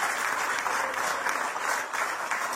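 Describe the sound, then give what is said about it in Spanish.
An audience claps together in a loud, dense burst of applause, answering the speaker's call for a strong round of applause, holding steady for the whole moment, many hands blending into one continuous wash of sound. “Dale un fuerte aplauso si tú eres un hombre de fe.”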